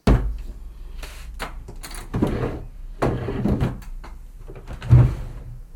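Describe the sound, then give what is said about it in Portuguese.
A box full of small holy cards is opened and handled while held in the hand, with a series of light wooden scrapes and knocks and a firmer thump near the end. “E agora está aqui comigo. Estou com ela na mão.”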